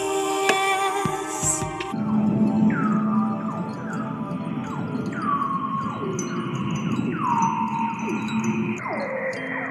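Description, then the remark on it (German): Underwater polar ocean recording from the Polar Sounds project: a regular series of high, downward-sweeping whistle calls repeats roughly every second over a steady low, murky rumble, with no voices. “Unterwassermusik aus dem Projekt Polar Sounds”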